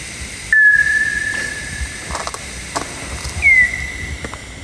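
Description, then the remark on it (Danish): Bat calls through a bat detector: two whistly, high-pitched chirps about three seconds apart, each dropping quickly then holding a thin steady tone, with soft ticks and hiss around them and no talking. “Og de her skrig, de ligger altså nede på en 18 kHz.”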